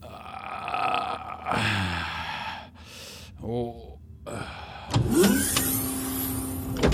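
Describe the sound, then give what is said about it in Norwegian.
Low, drawn-out moaning groans come in short bursts, muffled from behind a prison cell door, mixed with creaking and a whirring mechanical sound that swells near the end. “Men så hører han plutselig en svak stønnelyd.”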